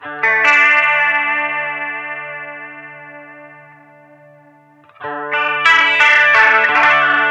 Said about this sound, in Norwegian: Men det er fortsatt Nå er den i koros. Herregud. Ja. Og sus Det er bare lyden av ja, ja. Lyden av korus. Veldig fint.